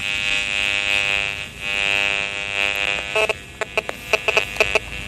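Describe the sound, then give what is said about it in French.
A 3G signal from an antenna just behind buildings, mixed with DECT and Wi-Fi, rendered as sound by an electromagnetic detector in a street: a loud, steady electronic buzz that turns, in its second half, into a string of sharp, uneven pulsing bursts. “ça, c'est la 3G, ça.”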